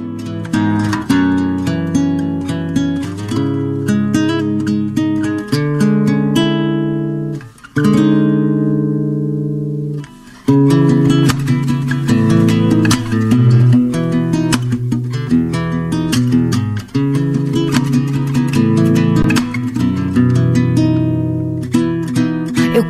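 A recorded song plays loud and steady, with dense, bright harmonic chords and rhythmic attacks; midway the high parts drop away briefly, leaving sustained low notes before the full arrangement returns. No talking.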